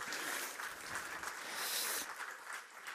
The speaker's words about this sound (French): Voilà, on peut applaudir les enfants qui sont là avec nous ce matin.